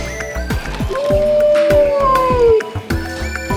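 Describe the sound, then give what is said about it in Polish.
A single drawn-out wolf howl, played back by a robot through a small speaker, rises and holds for over a second before fading, with steady rattling and clicking noises throughout. “To jest wilk.”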